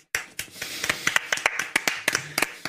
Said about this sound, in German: Ja, du wirst auch genötigt, mein, einmal hier zu klatschen.